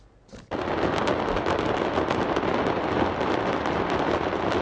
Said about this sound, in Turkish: Hava Fişek Fabrikası patladı şu anda. Dumanlar bizim oraya geliyor. Alev alev şu an alev alev. Yangın iyice sardı şu an.